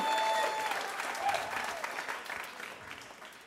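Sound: studio audience applauding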